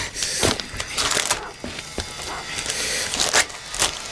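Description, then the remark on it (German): An envelope with a large question mark drawn on it, holding a key, being torn open: a series of sharp, crackly paper rips in uneven bursts, fairly loud, with no voices over them. “Hier, mach du ihn auf”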